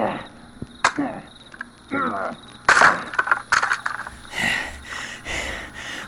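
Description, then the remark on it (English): A door is forced open with a series of sharp cracking and splintering impacts, loud bursts at irregular intervals, ending in rough scraping and clattering as it gives way. “Fuck their door then.”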